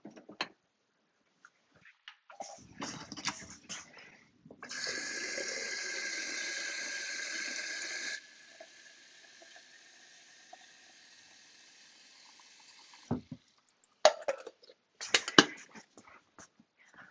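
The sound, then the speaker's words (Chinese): Water runs steadily into a Bermuda (百慕达) electric kettle of about 600 cc for a few seconds, then a quieter stream continues, framed by clunks and clicks of the kettle being handled and switched on to boil water for coffee. No one speaks. “然后我现在，啊，忘记烧水了。”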